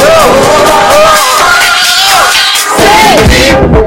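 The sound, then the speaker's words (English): A large crowd cheers and yells continuously, with rising and falling whoops and shouts riding over a dense, loud roar of voices that barely lets up. “One, two, one, two, make some noise.”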